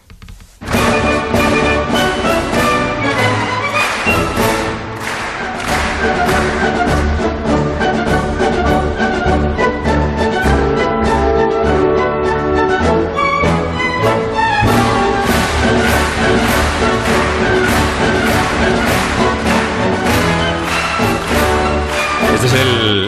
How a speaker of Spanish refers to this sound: la marcha que cierra siempre el concierto de Año Nuevo es la marcha Radetsky que suena así